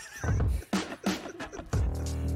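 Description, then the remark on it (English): A chair creaks in several strained, squeaky bursts, ending in one long groaning creak, loud, with no voices. “It was a freaking chair.”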